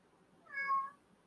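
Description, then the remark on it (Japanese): A single cat meows once, a short rising-and-falling cry lasting about half a second, clear over a quiet background with no talking. “猫も参加してます。”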